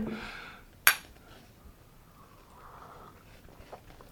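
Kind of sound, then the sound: household object, coffee cups clinking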